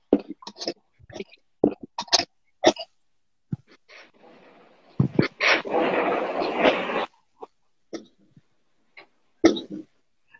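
A small female dog yaps in short, sharp bursts, scattered irregularly, with a longer noisy, rough stretch in the middle before the barking resumes.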